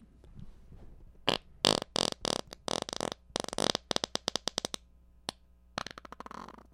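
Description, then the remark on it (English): A rapid series of loud farts, some long and buzzing, others short and sputtering, firing off in bursts with brief pauses, then one more drawn-out blast after a gap. “Yeah, that sounded like a bunch of Transformers transforming.”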